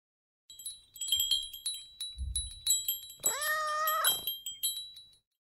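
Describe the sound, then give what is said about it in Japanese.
A cat lets out a long, drawn-out meow, loud, preceded by a few softer chirps and followed by brief sounds; high tinkling tones linger faintly in the background. “猫に仕方されました。”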